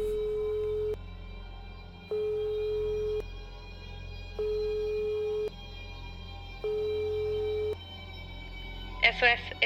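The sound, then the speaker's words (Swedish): A telephone ringing tone of a call to the police repeats four times in steady, even pulses, each steady beep about a second long with pauses between, over a low hum, ending with a brief burst of voice-like sound. “Men jag ringde ändå.”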